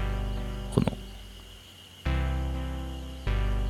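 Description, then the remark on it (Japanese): An analog synthesizer track played on a Korg Volca plays thick, buzzy sustained notes that swell in anew every second or so, with a quick burst of percussive hits early on and a brief spoken word. “この後ろで鳴っている音ですねえー、もともとシンセ1というノードというシンセをモデリングした無料のソフトで作ってたんですけど、えー、それをコルグのボルカというアナログシンセに置き換えて結構パリッとした、えー、張りのある音圧というかね厚みのある音になっていてこれはかなり理想の音に近づいたなという印象ですね”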